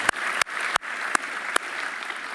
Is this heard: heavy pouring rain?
no